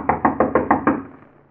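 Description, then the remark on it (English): Six quick, evenly spaced knocks rap on a wooden door, fairly loud, then a short resonant decay into quiet. “As Horace, a small, mild mannered man in his late 40s, starts to open some of the gifts, there's a knock at his door.”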